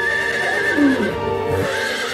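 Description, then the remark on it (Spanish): A horse neighs loudly, a shrill whinny that rises and falls with a rough, wavering tone, followed by a lower snort-like rumble, with no one speaking. “Y yo voy a llegar hasta allá en mi caballo.”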